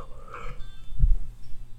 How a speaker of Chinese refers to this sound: 抱歉，刚才打了一个小哈欠